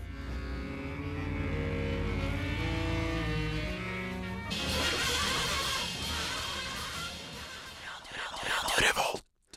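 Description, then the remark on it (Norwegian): Chaotic free jazz from an eight-musician octet: layered, shifting horn tones erupt midway into a loud, harsh wall of screeching, overblown noise that cuts off abruptly. “Det er altså åtte musikere som har gått, gått sammen om å systematisere bråk.”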